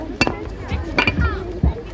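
Three sharp hammer blows on a foundation stone ring out at uneven intervals, fairly close and clear, while a crowd murmurs faintly in the background.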